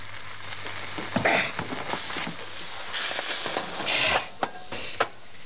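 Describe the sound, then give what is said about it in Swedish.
Cream sauce boils over onto a hot stove, giving a steady sizzling hiss with a few sharper spitting bursts and pops. No one speaks. “När saker kokar över så flippar jag och det var ju grädde dessutom som kokade över, det kommer fastna.”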